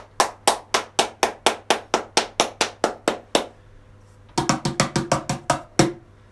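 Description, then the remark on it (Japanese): A mini cajon is struck in a steady, even run of about fourteen sharp slaps, then after a brief pause a quicker, fuller burst of hits with a deeper resonant thump. No voices. “ミニカホンを叩いてみた第38弾、始めていきたいと思います。”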